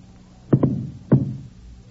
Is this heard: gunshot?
yes